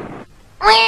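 cat meowing

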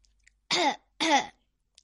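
throat clearing

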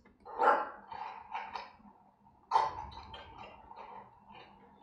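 dog barking

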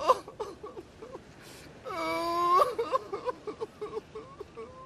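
boy crying

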